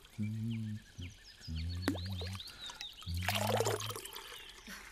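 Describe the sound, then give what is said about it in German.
Water is ladled by Beethoven from a healing spring into his drinking cup, at a temple-like building in a spa park, a brief splashing trickle in the second half, over low, repeated croaking tones and scattered chirping birdsong. “Beethoven schöpft mit einer Kelle das schmackhafte Wasser in seinen Trinkbecher.”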